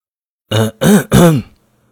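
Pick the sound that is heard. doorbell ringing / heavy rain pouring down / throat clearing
throat clearing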